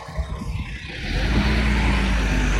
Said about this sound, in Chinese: 这个破车真真他妈的讨厌，怎么动静这么大？然后还连续好几辆在这窜来窜去的。